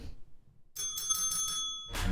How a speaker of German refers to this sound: Warte, erstmal mach mal, mach mal die Klingel für den Jingle.